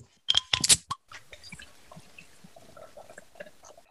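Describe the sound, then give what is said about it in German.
A bottle of beer (5.4 percent alcohol, labelled 'süffig') is opened with a short burst of sharp, hissing clicks, then after a brief pause the beer is poured in a steady, bubbly, gurgling stream that fizzes quietly until the end. “Also machen wir mal auf.”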